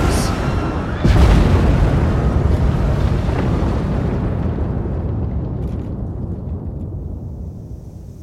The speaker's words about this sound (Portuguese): Enquanto entra na escuridão, ele ouve explosões e tremores.